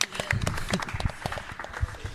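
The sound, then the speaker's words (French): An audience applauds, a steady wash of many hands clapping at once with scattered sharper claps standing out, sustained evenly for the whole stretch without a break. “Allez, te les applaudissements.”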